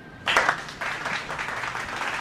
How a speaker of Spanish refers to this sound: el aplauso, por favor, del Supernova Arena. De pie. De pie para recibir al violinista sobre la urna.